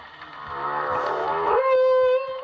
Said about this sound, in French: Identifié en 1979, il a été photographié à nouveau en 2017 et aujourd'hui près du bateau. Chants mélodieux ou gémissements mélancoliques, l'acoustique des baleines fait l'objet d'études scientifiques.